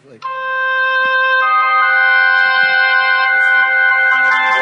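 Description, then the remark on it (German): A harsh, sustained chord of clashing tones rings out loud and steady, with a dissonant, almost siren-like blare that holds for several seconds before a new note shifts in near the end. The music is generated by scientists from a colon cancer protein. “die hatte zu einem späteren Zeitpunkt Krebs und somit haben die Wissenschaftler ein, ein Protein vom Darmkrebs genommen, um zu sehen oder zu hören, ob dort ein Unterschied vorhanden ist.”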